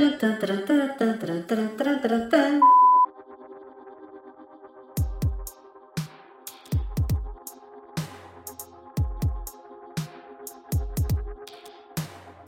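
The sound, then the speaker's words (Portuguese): A short musical jingle used as a show's vignette, with reverb added: a bright, dense burst of chords for a couple of seconds, then sparse punchy hits with a low thump, each trailing off into a long reverberant wash. No speech. “Pronto, agora temos uma vinheta.”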